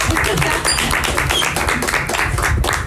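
Steady applause from a live audience, a dense patter of many hands clapping at once, holding at an even, fairly loud level for about three seconds.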